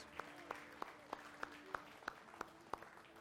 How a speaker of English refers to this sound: Is God good? Let's give him a round of applause.